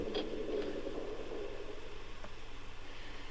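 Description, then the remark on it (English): A low, grainy creaking drags on steadily over a hiss of background noise, broken by a few faint clicks and ticks. There are no voices. “He's looking around. Here's the creaks.”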